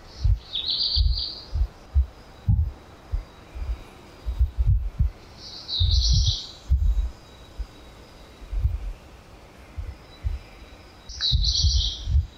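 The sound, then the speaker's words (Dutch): Black redstart and great tit singing early in the morning in Brussels, the great tit in the distance, in three short, high bursts spaced several seconds apart, over a steady background of low, irregular thumping and rumble. “En blijkbaar zijn dat de zwarte roodstaart en de koolmees.”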